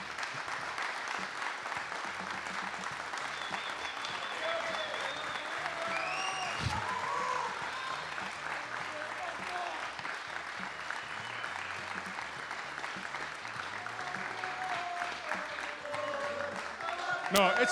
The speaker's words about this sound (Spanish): Les pido un fuerte aplauso a la producción de Nacional Rock, la gente en Twitch también que ha sido parte de esto.